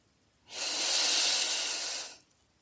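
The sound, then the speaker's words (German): A slow, steady breath drawn in through the nose during a breathing exercise on a mat, lasting under two seconds, soft with an airy hiss that swells gently and fades, no talking. “Atmet langsam durch die Nase ein”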